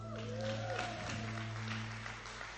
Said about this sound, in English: Thank you so much. Very good. Let's give her a hand, everybody.